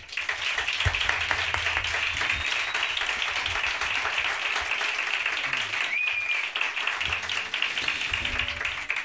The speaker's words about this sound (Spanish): Fuerte aplauso.